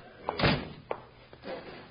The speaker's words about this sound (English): Come in here and shut the door